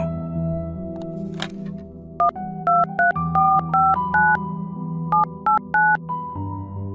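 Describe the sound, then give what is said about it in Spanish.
A steady telephone dial tone as a branch manager picks up the phone, then a quick series of touch-tone keypresses redialing a number, with short evenly spaced beeps in bursts, over a low background hum. “La gerente tomó el teléfono y remarcó el número del cual la señora Estelita nos había llamado.”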